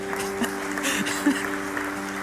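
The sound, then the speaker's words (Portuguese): A church audience claps steadily for the pastor, a dense wash of many hands with no pauses, alongside a low, sustained hum-like tone underneath. “Salva de palmas para o pastor”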